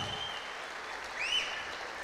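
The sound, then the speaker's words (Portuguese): A crowd claps steadily throughout in applause for Jesus, a dense, continuous wash of applause at an even loudness, with a brief high whistle rising out of it partway through. “Pode ser mais intenso esse aplauso para Jesus.”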